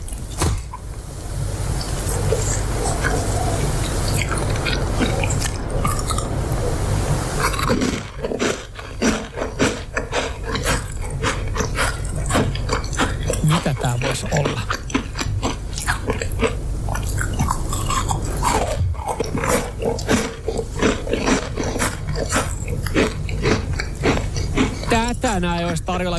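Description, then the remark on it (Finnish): Close-miked ASMR-style chewing and eating of a treat, with continuous wet, crunchy bites and smacking mouth sounds in an irregular rhythm, loud and steady for the whole clip, no speech. “Ja, ja tältä kuulostaa, kun jotain herkutellaan ASMR-muodossa.”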